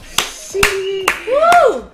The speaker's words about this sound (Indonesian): tepuk tangan dong semuanya yang ada di